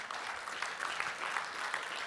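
Steady applause from an audience, many hands clapping in a dense, continuous patter with no voices standing out, holding an even level throughout.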